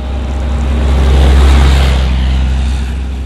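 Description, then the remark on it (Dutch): A tank's engine drones steadily as it drives, a deep low rumble swelling slightly in the middle and easing off again, with no voices present. The tank is an automatic that can also be shifted by hand, and it drives smoothly. “Jawel, maar hier rij je zomaar weg. Het is, ook een, het is een automaat ook.”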